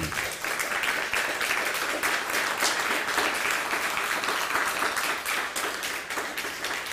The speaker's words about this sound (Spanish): Sean bienvenidos todos, un fuerte aplauso.